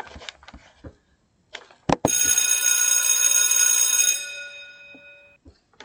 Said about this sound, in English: All right, all right, all right. We're back, we're back. When you hear that bell, that means we're getting ready for our chat.